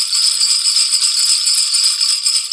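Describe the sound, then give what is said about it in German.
Continuous bright rattling and jingling of a Christmas wreath, taken down from its mount outside a door, being shaken hard, loud for a few seconds without pause, no voices. “zur Tür gerannt, hab den dort montierten Weihnachtskranz draußen abgenommen und bin wieder reingerannt”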